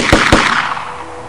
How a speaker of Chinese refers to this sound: 听到温保博的号令，三个人就一起开了枪，枪声打破了这个寂静的世界。